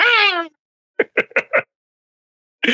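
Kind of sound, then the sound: vocal imitation, imitated cat meowing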